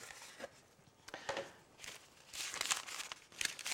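A stiff, perforated paper piano roll being handled, with a series of crisp rustles and crinkles coming in uneven bursts, louder toward the end, and no voices.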